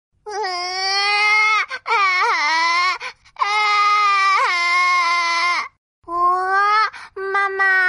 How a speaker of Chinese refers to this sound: 小宝宝怎么又哭了？ 嗯，小宝宝可能是想睡觉啦。